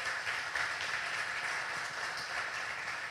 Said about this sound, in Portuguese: Quantos entendem isso? Podem aplaudir o Senhor Jesus?